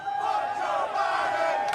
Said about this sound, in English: An NBC Sports uh, reporter misheard a NASCAR crowd chanting Fuck Joe Biden and thought they were cheering Let's Go, Brandon in support of driver Brandon Brown. As you can hear the chants from the, the crowd.